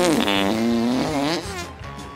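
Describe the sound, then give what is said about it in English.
A long, loud fart sound effect, a buzzy raspberry that wobbles up and down in pitch for about two seconds without a break, with no talking. “They have four stomachs, so they fart like blimmin' champion.”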